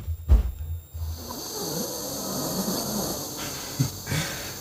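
Heavy, rasping breaths drawn through a nitrous oxide (laughing gas) mask, loud, with a hissing airflow and a soft snort-like rumble on the inhale through the nose; no one speaks.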